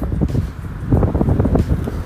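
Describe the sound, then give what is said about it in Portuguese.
Strong wind buffets a microphone outdoors on a street in London, producing loud, rumbling low-frequency gusts that swell and subside continuously, with no voices present. “Puta, tá ventando muito aqui, hein? Senão vai ficar bom esse áudio.”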